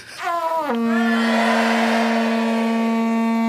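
A celebratory jingle: a loud, blaring horn-like tone swoops downward, then holds one steady, buzzy pitch for about three seconds, with no talking over it.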